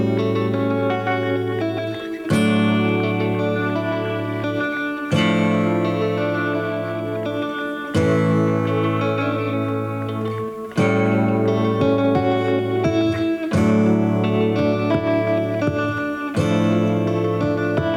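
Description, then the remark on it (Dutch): An electric guitar with a tremolo effect plays sustained, shimmering chords with a wavering modulation, changing chords every few seconds in a steady, loud intro passage with no voices. “Ja, volgens mij is het tremolo-effect op zijn gitaar.”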